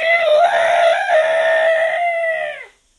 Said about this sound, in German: Ein Törö ertönte. Ein langer Rüssel erschien und zwei weiße Stoßzähne ließen Kalle die Ohren zu Berge stehen. Er war also bei den Elefanten gelandet.